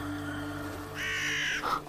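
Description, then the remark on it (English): A crow perched on a streetlight outside a window caws loudly, a harsh drawn-out call followed by a shorter second caw, over a low steady background hum. “Every morning, without fail, my crow arrives and perches on the streetlight outside the window.”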